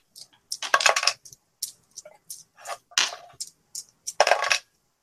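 Dice rattle and clatter across a hard tabletop in a series of quick, sharp bursts, a couple of longer tumbling rolls among shorter clicks, with no talking.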